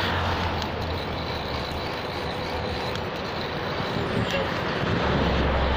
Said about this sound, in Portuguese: Troca de massas, caminhão fazendo barulho.